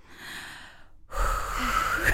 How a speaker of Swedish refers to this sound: Ja, kan du inte andas med mig också? Ska vi andas tillsammans ja, en stund?